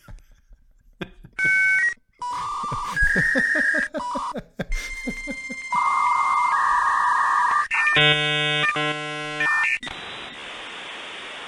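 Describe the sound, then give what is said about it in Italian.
Electronic phone tones as a call is placed: steady beeps and short tone bursts, a quick run of pulses, then a buzzy, harmonic ringing tone that repeats in spurts. No one speaks. “Vabbè, sì, sai cosa facciamo? Dimmi. Chiamiamo”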